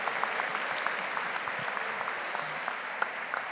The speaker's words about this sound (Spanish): Esa es la actitud. Un fuerte aplauso a estos actores.